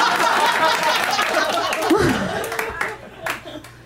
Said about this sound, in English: Claps!